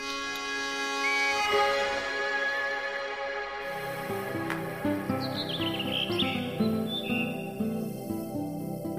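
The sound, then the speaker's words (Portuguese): Rufous-tailed rock thrush song: quick, bright whistled chirps and warbling phrases, fairly clear, rising and falling over a steady sustained tonal backing with no talking. “Difícil de observar, o melro das rostas gosta de frequentar zonas montanhosas.”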